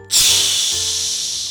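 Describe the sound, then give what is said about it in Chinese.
A voice imitates an old steam train hissing to a stop: one sustained, breathy hiss that starts abruptly and holds steady for over a second, loud and airy with a faint low hum beneath. “所以老师那时候也是有想到火车的声音，所以来帮火车来命名，对不对？”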